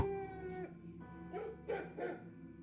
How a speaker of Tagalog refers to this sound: Tapos tahol pa lang tahol si Itim.